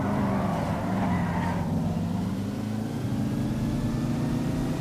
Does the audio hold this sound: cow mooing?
no